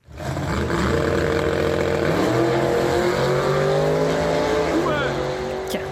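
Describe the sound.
A loud drag racing engine of a rebuilt old Chevrolet Camaro roars and revs, its pitch climbing and shifting through gears over several seconds, with a brief tire squeal near the end and a voice talking underneath.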